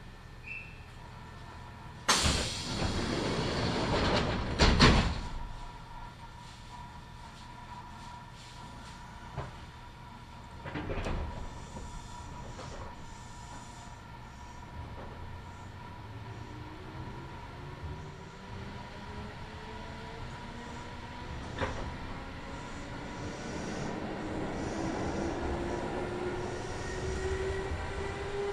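A Kintetsu Nagoya Line local (all-stations) train running from Shiroko to Tsu-Shinmachi: loud clanks and thumps early on, then a steady low rumble with a rising motor whine as the train picks up speed, and no voices.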